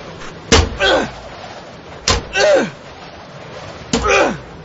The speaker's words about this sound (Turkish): Kapıya vuracağım. Ya da kanırtarak açmaya çalışacağım. Ellerimize ne kadar vursak içeridekileri duyuramayız. Sanırım haklısın. İşte kol demirini buldum. Vur bakalım kapıya.